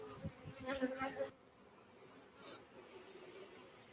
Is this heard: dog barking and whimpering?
no